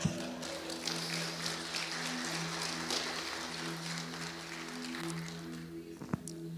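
An audience applauds a man, called 'the brother', steadily for several seconds, a dense patter of many hands clapping over a low, sustained musical drone, ending with a couple of sharper knocks.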